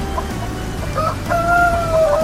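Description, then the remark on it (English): In an old cornfield, a rooster crows in a long, drawn-out call with a few short clucks from chickens before it, set against a steady low rumble of background noise. No one speaks. “The chickens landed in the old cornfield.”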